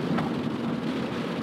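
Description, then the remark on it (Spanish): Steady rain falls outside at about 22 degrees, a dense, continuous hiss and patter with a low rumble underneath, fairly loud and unbroken throughout, with no voices present. “disculpen la lluvia, está lloviendo en este momento, espero que no se filtre tanto el ruido.”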